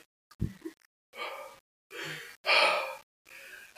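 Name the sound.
voice imitating heavy breathing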